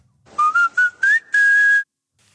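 A short whistled melody of five quick notes, the McDonald's jingle, rising slightly and ending on a longer held tone, clear with no talking.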